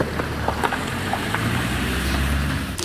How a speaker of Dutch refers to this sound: Een auto, de eerste die we zien. Ja. Is de weg kwijt.